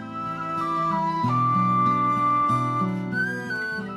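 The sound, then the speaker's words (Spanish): A person whistles and warbles a slow melody with long, steady held notes that step up near the end, clear over a low, sustained musical backing. No one speaks. “Silbidos y gorjeos que los labios experimentados en el arte de la música forman.”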